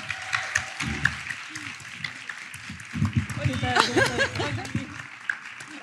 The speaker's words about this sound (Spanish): ¡Aplauso! ¡Bien!